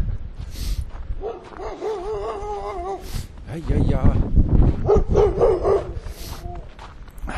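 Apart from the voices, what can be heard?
dog barking and whimpering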